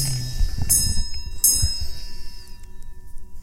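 A clock chimes twice in quick succession, each bright strike followed by a thin, high ringing tone that slowly fades over a low background rumble.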